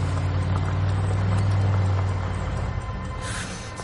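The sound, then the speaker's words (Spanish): A black SUV's engine rumbles with a steady low drone that swells and then eases off as it approaches and slows. No one speaks. “Un todoterreno negro se aproxima.”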